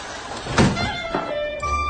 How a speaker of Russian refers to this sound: Мама, я открываю дверь, мама. Я поняла.